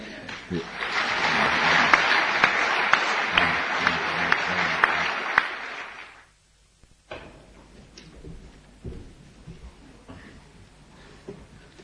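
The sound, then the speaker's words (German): An audience claps steadily for about six seconds to welcome a speaker before an evening lecture, a dense, loud wave of applause that stops abruptly, leaving quiet with faint shuffling and small knocks. “So glaube ich, sagen wir mit einem Applaus herzlich willkommen.”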